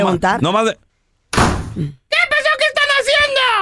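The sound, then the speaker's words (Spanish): A door bangs open hard with a single loud thud and a brief noisy rattle as a child arriving home throws the door open, set between excited shouting voices before and after. “Se, se vieron el portazo, ¿no? Así entran los niños, güey.”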